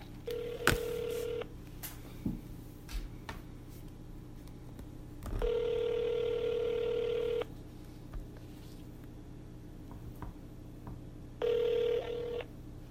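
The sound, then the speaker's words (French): A phone line with a brief burst of dialing followed by a ringback tone that repeats in long steady buzzes separated by pauses, heard clearly with no one speaking. “on est prêt à appeler”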